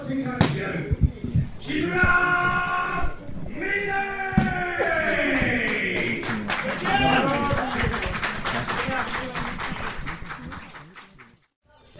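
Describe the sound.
Rapid, irregular smacks of punches and kicks landing on flesh during a women's second bout inside a caged ring, heard from right beside the cage. The sounds are sharp, with raised voices and shouts running underneath throughout.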